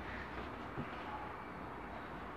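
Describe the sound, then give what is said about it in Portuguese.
Thunder rumbles low and steady, a broad continuous roar with no clear break, faint, with a slight swell partway through and no voices. “O que, que é isso, meu Deus do céu? Tá, tá, tá minha casa tá caindo. Ó, trovão.”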